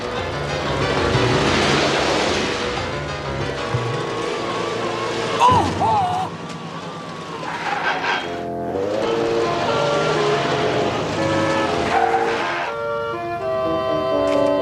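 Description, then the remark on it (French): The Duponts' jeep drives along with a continuous, loud engine and road rumble, a rushing wind-like hiss over it, and a brief jolt partway through before the steady drone resumes. “La Jeep des Dupont”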